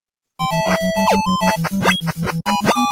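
Retro beat 'em up video game music plays loud and busy after a brief silent start: a steady pulsing synth bass, bright melody lines and quick sweeping sound effects layered over it, with no talking.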